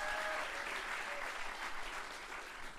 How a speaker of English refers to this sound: that deserves more applause than that. That's a great thing to have accomplished, guys.